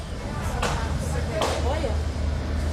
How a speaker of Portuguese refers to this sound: Os passageiros de um ônibus que passava pelo local, no bairro Sacomã, na zona sul de São Paulo, gravaram a confusão Pouco depois dá para ouvir os disparos.